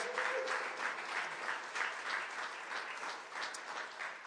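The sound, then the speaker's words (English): A crowd gives itself a round of applause for its support of Missouri District Children's Ministries, a dense wash of many hands clapping steadily and fairly evenly throughout, with no voices standing out. “Can you give yourselves a round of applause?”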